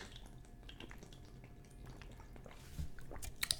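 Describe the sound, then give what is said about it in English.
Quiet wet sipping and slurping of a Cutwater mango margarita, small liquid clicks and drips that grow slightly louder toward the end, with no talking. “But we're just gonna take a sip, right? We're just gonna take a quick little gulp right now.”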